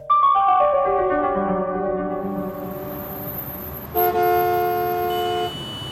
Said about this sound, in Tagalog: Grabe ang traffic. Eh bukas na kasi maglalandfall ang bagyo eh. Kaya ang dami nang nagsisilabasan ng bahay para bumili ng supplies.